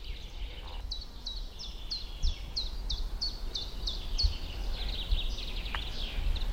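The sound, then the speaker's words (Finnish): A common chiffchaff sings a steady series of bright, repeated two-pitch notes, about a dozen in an even rhythm, over a low outdoor rumble, beside a gravel road with little car traffic, in the middle of the day in summer. “Kuunnellaan tiltalta hiekkatiellä on mukava ajella fillarilla ja sitten on ihan pakko pysähtyä, kun tulee tällaisia äänimaisemia.”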